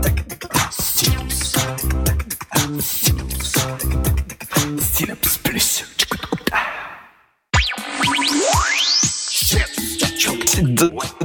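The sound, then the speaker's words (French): A punchy electronic Canal+ channel jingle by Mago with bright bells over rhythmic stabs, some instruments exactly as in 1994-95. After a brief silent break, a rising synth sweep climbs into ringing tones. No voices. “Dans, dans, dans, les cloches, enfin les cloches, mais ça s'entend super bien.”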